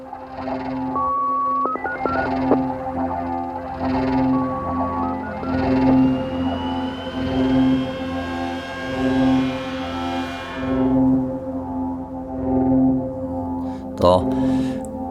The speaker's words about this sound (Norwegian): Klokken er 13.40 når alarmen går. Det er 35 minutter siden raset har gått.